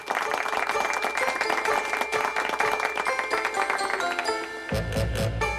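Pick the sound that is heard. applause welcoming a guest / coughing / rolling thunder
applause welcoming a guest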